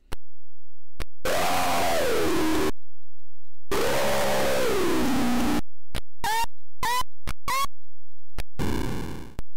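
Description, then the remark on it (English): Two long, loud dinosaur roars from a game in which two dinosaurs fight and roar in each other's faces, with a rough, wavering growl, followed by a rapid string of short, sharp shrieks and a final burst of harsh noise, with no talking. “And you just sit there and you roar in each other's faces, and I'll put in roar so you can hear all that stuff too.”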